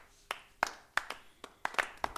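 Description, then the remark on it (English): A small, polite golf clap for the Radio TFI Orchestra: roughly eight sharp hand claps at a slow, slightly uneven pace, fairly soft, with no voices over them. “You give them the golf clap.”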